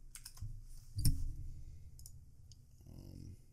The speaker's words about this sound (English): Again, sorry if you guys hear the typing. It's my keyboard.